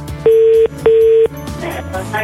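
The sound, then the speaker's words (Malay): Two steady, loud ringback tones of an outgoing phone call placed by the radio station Radio Sinar, each lasting about half a second with a short gap, playing over soft background music with no talking. “Jom kita telefon”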